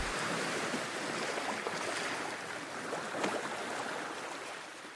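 A steady wash of surf on a beach near La Rochelle, broad and hissing, with small rises and falls but no distinct single wave crash. No one speaks.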